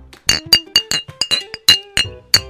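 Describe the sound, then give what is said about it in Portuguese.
A rapid series of sharp glass clinks and rattles, about a dozen bright hits in quick irregular succession: glass breaking inside a trash bag. “dar aquele barulho de pra vidro. dar o barulho. Aí tu fala, opa, quebrou aqui, bah, eu acho que eu vou rasgou o saco, vou ter que limpar.”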